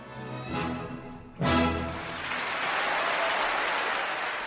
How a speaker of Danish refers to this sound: Og hvis du gør det ordentligt, jamen, så kan du også mærke suset fra publikum, når de siger nej og klapper af dig.